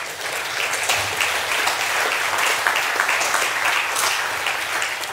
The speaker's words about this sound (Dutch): Kunnen we God daar een applaus voor geven?